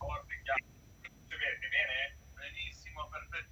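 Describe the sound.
Tinny, muffled voices from a radio broadcast feed back through a caller's open phone line because the caller's radio is left on, thin and garbled over a low rumbling hum, in uneven bursts for a few seconds.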